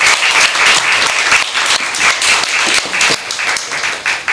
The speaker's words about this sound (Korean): 좋은 얘기를 들려주신 강연자님께 다시 한번 큰 박수 부탁드립니다.